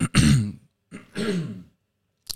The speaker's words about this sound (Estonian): köha on peal